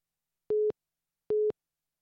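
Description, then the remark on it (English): A phone busy signal after a call dropped when the signal cut out: two short, identical electronic beeps at a steady mid pitch, evenly spaced with silence between, clear with no voices. “I think it was just uh, my oh, phone was connected to my jetpack, and uh, for some reason my signal cut out.”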